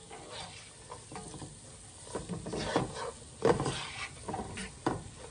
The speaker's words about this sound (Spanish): bueno aquí estamos acitronando la cebolla que fue una taza de cebolla. Bien picadita y luego estamos poniéndole el apio bien picadito también a la mantequilla.